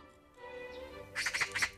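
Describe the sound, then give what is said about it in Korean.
A magpie gives a run of harsh, rapid chattering calls, four or five loud bursts in quick succession near the end, following a quieter stretch of low background tones. “그때 어디선가 까치 울음소리가 들려왔어요.”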